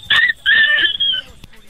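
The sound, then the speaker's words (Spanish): A child's voice imitates a dog barking, giving two or three high, yappy woofs in quick succession, fairly loud, with no other talking. “A ver, hazle como perrito.”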